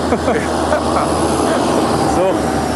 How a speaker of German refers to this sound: einen Moment, da kommt ein Trecker.